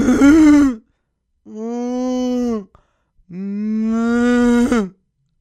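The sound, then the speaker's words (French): A human voice imitates cows heard mooing at night on a farm while they were mating: three long, drawn-out moos, loud, separated by brief pauses, each call sliding slightly in pitch before cutting off. “je suis comme, yo, les vaches sont en train de fourrer, c'est fucking badass, bro. Comme, il y a une vache qui a fait comme.”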